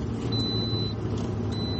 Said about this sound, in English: that sound you're hearing is a common sound in this car on these trips, um, which is the fasten seatbelt seatbelt alarm for the passenger seat because the car thinks with the 75 pounds of carrots that are in the front seat that there's someone that